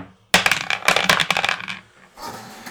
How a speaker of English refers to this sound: So um, let's uh, grab our dice and roll in the box,